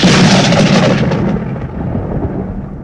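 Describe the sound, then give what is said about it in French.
A loud thunderclap from a lightning strike bursts out sharply, then rolls away into a rumbling decay as the crackling brightness fades over a few seconds. No one speaks. “Encore un autre éclair.”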